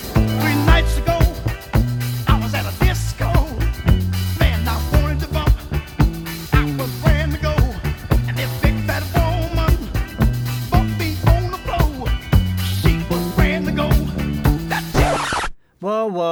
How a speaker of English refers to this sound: First up, we're gonna play …, …